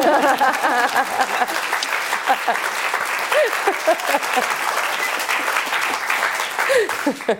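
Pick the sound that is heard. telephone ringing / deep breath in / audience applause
audience applause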